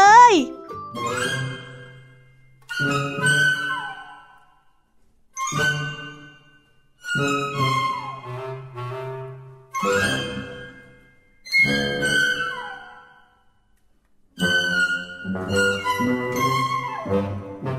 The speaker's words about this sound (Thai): เสียงออดดังแล้ว อุ้ยต้องไปเข้าเรียนแล้วล่ะค่ะ